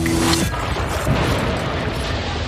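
car crash impact

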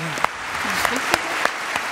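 audience applause

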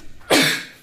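sneeze

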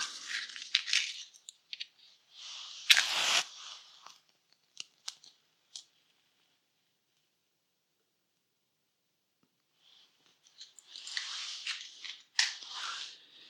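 lighting a candle

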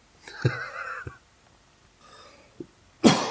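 coughing

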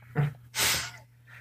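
sneeze

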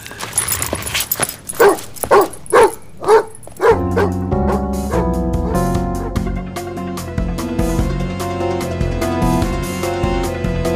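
dog barking

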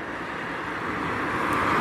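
car passing by

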